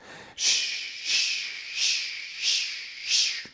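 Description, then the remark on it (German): A voice imitates a steam train chugging with five steady, hissing 'sch' bursts in an even rhythm, fairly loud and breathy, with no other talking. “Also stell dir vor, du machst so dieses Sch, Sch, Sch, Sch, was kleine Jungs ja gerne machen.”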